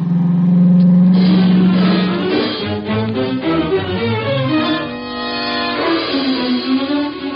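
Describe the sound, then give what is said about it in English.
A car engine drones steadily, then revs and pulls away, its pitch rising and shifting through gears as it accelerates, loud with no voices, after dark at a farmhouse. “We left my car around in back of the house and went up on the porch.”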